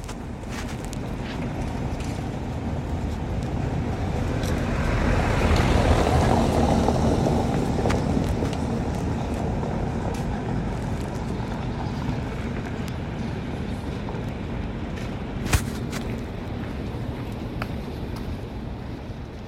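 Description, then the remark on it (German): A quiet riverside cobblestone street along the Spree, where only very few cars drive: a steady low rumble as a single car swells past and fades, with scattered small clicks and one sharp knock later on. No one speaks. “Okay, das ist eine Straße, die ist gar nicht weit von der, von die, die wir eben gehört haben, liegt, die geht an der Spree lang und die hat sogar Kopfsteinpflaster, aber da dürfen ganz wenig Autos nur langfahren oder da fahren nur ganz wenig Autos”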